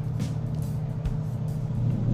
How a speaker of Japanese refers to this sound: 外のね道路やっぱ大通りバス通りが近いからね車の音がすごい聞こえる、まあ、ちょっとね慣れるまではあれなんですけど